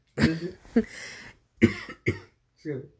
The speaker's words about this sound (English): Excuse me. coughing while I'm talking.